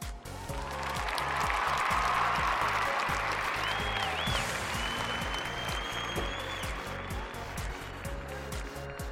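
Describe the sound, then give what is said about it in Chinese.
A large crowd applauds loudly and steadily for about nine seconds, a dense wash of clapping with a brief whistle rising out of it midway and a low rhythmic thumping underneath. “总感觉呀，此处应该有掌声。”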